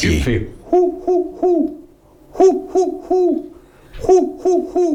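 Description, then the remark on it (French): A person imitates a hoopoe's call: three rounds of soft, hollow triple hoots, each 'oop-oop-oop' evenly spaced and clear, with short pauses between sets. “Va faire le son de la huppe.”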